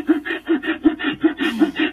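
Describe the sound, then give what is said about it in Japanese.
A handsaw, a pruning saw, cuts in half a 1820 by 910 mm rectangular plywood panel in quick, steady back-and-forth strokes, about ten rasping pulls in two seconds. The rhythm is even and moderately loud, with no voices. “のですね、音でわかると思うんですけど、僕、ノコギリ下手なんですよ。”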